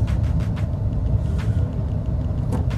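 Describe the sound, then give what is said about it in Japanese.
A white-plated Suzuki Wagon R Stingray kei car driving on the road ahead, heard as a steady, loud low rumble of engine and tyre noise with occasional brief hissy bursts of passing traffic layered on top. “はい、えー、というわけで目の前を走ってる車なんですけどスズキのワゴン R スティングレーというやつなんですけどねえー、はい、えー、今日も出ました白いナンバーの軽自動車です”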